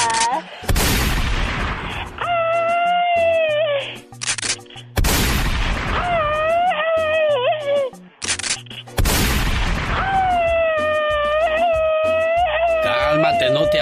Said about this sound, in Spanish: no te asustes, ya, ya, ya. Son los, son los truenos de la explosión grupera que llega el sábado 21 de marzo al Stampede de Aurora, Colorado.